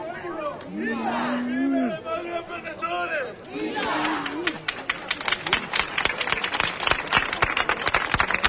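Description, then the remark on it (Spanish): An audience breaks into loud, sustained cheering for the Virgen Chiquita with rising shouts, then dense, rapid applause of many hands takes over, clapping steadily and filling the space. “No cesan los aplausos, los vítores a nuestra Virgen Chiquita.”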